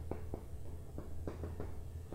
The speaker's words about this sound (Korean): 저 원래 이보다는 더 잘 써요. 순 이거 뭐 이거 마커펜 때문에 그런 거예